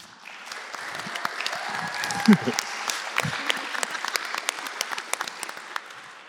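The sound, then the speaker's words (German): A room full of people claps steadily for several seconds as a school head is introduced for a panel discussion on education, dense overlapping applause with a few whoops and cheers rising out of it, sustained throughout. “Höre ich das richtig? Du hast deinen Fanclub mitgebracht”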